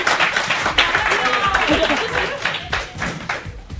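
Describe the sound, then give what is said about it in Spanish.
An audience applauds steadily for several seconds at the sixth Jornadas de Podcasting event in Alicante: a dense, even patter of many hands clapping, with voices and chatter mixed in underneath. “Vale, ya, es que así mi madre luego ya el aplauso y puede eh, presumir delante de las vecinas.”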